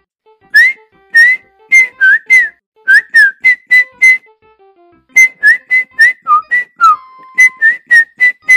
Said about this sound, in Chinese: 鼹鼠爸爸为了庆祝小宝宝的出生，吹起了口哨。鼹鼠妈妈也吹起了口哨。